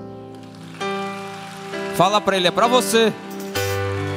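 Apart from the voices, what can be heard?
audience applause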